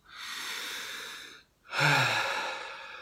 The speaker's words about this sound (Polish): i mam z kimś konflikt, to oddech, jestem sobie sam, na spokojnie oddycham. Mało ludzi zdaje sobie sprawę z tego, że Najprostszym sposobem zmiany emocji, zmiany odczuć jest zmiana fizjologii. Czyli na przykład prosta zmiana fizjologii, zmiana oddechu.